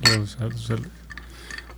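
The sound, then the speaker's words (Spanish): Glasses of beer clink lightly together a few times in a toast, a soft ringing tap or two following some brief voiced sounds from people. “Salud por los cervix. Salud.”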